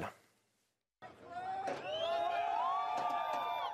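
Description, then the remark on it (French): A crowd of many residents of Rostov, Russia, cheers and shouts together after a brief silence as Wagner group forces leave the city, many voices overlapping into a loud, sustained roar with high whoops rising above it. “Sous les acclamations de nombreux habitants, les forces du groupe Wagner quittent Rostov, pratiquement 24 heures après être entrées sur le territoire.”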